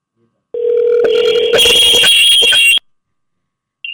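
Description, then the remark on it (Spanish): A steady electronic telephone tone of an outgoing call sounds for about two seconds, then turns into a harsher, buzzy ringing burst before cutting off abruptly, followed by a brief faint blip. “Ahora somos nosotros los que estamos llamando.”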